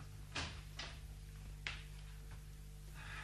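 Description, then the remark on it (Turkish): A door is opened to let a visitor in, with a few soft clicks and knocks of the handle and latch spaced over a couple of seconds. A steady low hum runs underneath. “Geliyor anneciğim ben kapıyı aç. Hadi aç yavrum.”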